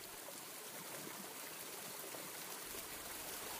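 A mountain stream in a national forest, full of fresh snowmelt, rushes steadily downhill, a dense, continuous hiss of churning water filling the scene at an even level with no pauses. No voices are heard.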